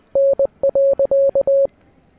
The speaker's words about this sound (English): a little bit of transfer of Morse code.